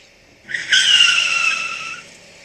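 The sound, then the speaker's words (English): A loud, high-pitched screech of car tires skidding to a halt, lasting about a second and a half before cutting off, with a faint engine rumble underneath. “stop the car!”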